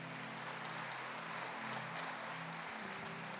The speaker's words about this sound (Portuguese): Você pode aplaudir o Senhor por cada tempestade que você passou.